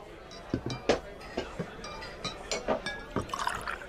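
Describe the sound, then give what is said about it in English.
A bartender pours liquor from four bottles (Jim, Jack, Johnny Red and Jameson), two at a time, into three shot glasses on a bar in a series of short gurgling splashes, with a faint glassy clink or two among the pours. “He deftly poured from four bottles, two at a time.”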